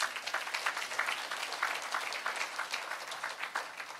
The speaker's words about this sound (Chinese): 我们拍手把荣耀归给主，好吧？